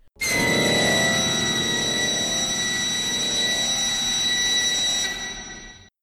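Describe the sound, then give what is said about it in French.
A factory siren blares a loud, steady, high-pitched whistle at one unchanging pitch for about five seconds over a rumbling mechanical undertone, then tapers off, marking a scene change in a stage musical about industrialisation. No one speaks. “important de mettre l'industrialisation au cœur de la pièce, au point que chaque changement de scène est ponctué par une sirène d'usine, pour bien rappeler le contexte.”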